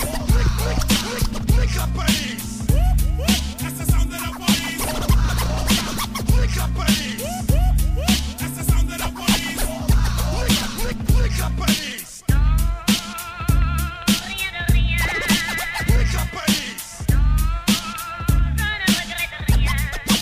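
A loud hip-hop DJ track with turntable scratching rides over a heavy, steady bass beat, with no vocals; music from the 1995 film La Haine by Mathieu Kassovitz. The mix shifts to brighter, busier layers partway through.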